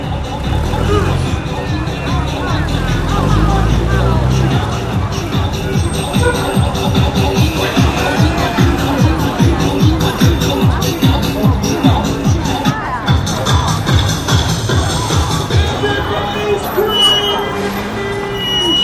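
Busy Beijing street ambience with a steady rumble of traffic and engines beneath a constant murmur of crowd chatter, loud and continuous throughout, with rhythmic low thumps in the middle stretch.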